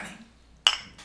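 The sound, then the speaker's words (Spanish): Glass bottles clink together in a celebratory toast: one bright, ringing knock that shimmers briefly, followed by a softer second tap, otherwise quiet. “es como por convivir un rato y pues estamos en celebración, por, por cierto, salud. Salud.”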